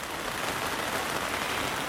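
A steady, dense, loud hiss of heavy rain pouring down, continuing unbroken with no voices or other sounds.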